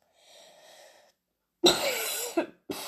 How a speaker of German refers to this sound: Zwischendurch muss ich auch noch ein bisschen husten, aber sonst geht das.